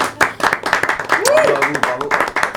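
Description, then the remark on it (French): A small group, members of a band received on a show, claps steadily and unevenly for themselves for a few seconds, with voices and a brief rising cheer-like call mixed in over the applause. “Vous pouvez vous auto-applaudir, ça sera beaucoup plus simple.”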